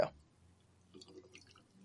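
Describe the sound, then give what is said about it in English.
Faint liquid trickling and dripping as High West Double Rye whiskey is poured into a glass, with a soft knock at the start and a brief gurgling pour near the end. “And what's the sound of you pouring it?”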